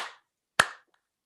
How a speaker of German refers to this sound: Und das rhythmische Klatschen geht folgendermaßen. Wir mhm. machen diesen Rhythmus.